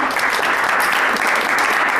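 An audience at an event with presidential candidates claps steadily for Alckmin, a dense, sustained burst of applause at an even loudness with no voices standing out above it.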